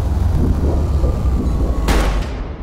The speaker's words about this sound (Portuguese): 10h40 da noite. Esse é o segundo disparo.